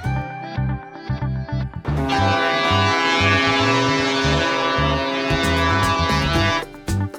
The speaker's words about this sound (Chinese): 随着汽笛声响，小明一号也缓缓来到码头边了。